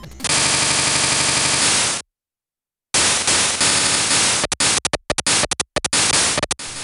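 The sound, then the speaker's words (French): Harsh, hissy chiptune drums made only with the Game Boy's noise channel in a game's intro: a fast, buzzing drum roll, a brief pause, then more rolling bursts breaking into choppy, clipped hi-hat hits just before the main theme. Loud and electronic, with no voices. “Là, juste dans l'intro, hein, juste dans l'intro, on a un roulement de batterie et on entend le Charleston qui donne 2-3 euh, coups juste avant de commencer le thème principal.”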